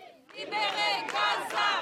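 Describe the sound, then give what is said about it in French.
A crowd of protesters at a banned demonstration in France, voicing their concern for the people of Gaza, shouting together in loud, sustained chanting, many voices rising and swelling in rhythmic bursts. “Pas de quoi décourager ceux venus crier leur inquiétude pour le peuple gazaoui.”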